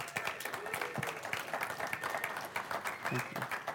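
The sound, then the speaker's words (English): A church audience breaks into sustained applause for two people who wrote and edited the church's daily devotional, a dense, steady patter of many hands clapping at once, with a few faint voices or cheers rising briefly through it near the end. “So I want to give them a round of applause if you guys don't mind.”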